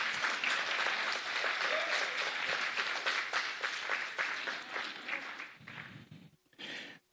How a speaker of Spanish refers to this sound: Gloria a Dios. Ahora cuando debes dar aplauso, no das.